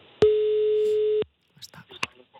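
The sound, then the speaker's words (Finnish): A single loud, steady telephone ringing tone of an outgoing call sounds for about a second, then cuts off, followed by brief, quieter bursts of voice. “numerosta soitetaan, katsotaan mitä sieltä nyt sitten”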